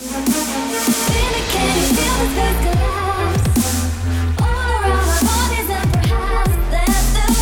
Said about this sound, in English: This is so 2014, isn't it? That weird dubstep sound.